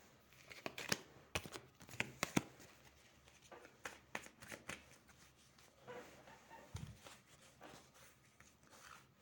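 Cards being shuffled during a fortune-telling card reading: quick papery riffles and snaps in irregular bursts, loudest early on, then softer shuffling and light handling sounds with no one talking.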